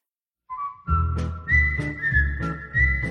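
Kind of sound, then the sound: human body sound, human whistling a tune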